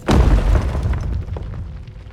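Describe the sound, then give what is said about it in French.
A heavy chunk of a stone arch in a church crashes down with a deep, booming impact, then a rumbling tail of scattered debris that slowly fades over about two seconds. No voices. “juste à temps pour voir un morceau d'arche lui tomber dessus.”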